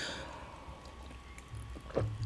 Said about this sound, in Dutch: Ik neem even een slokje koffie.